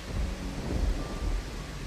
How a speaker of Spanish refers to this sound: Para cual la lluvia vibraba la tormenta era terrible.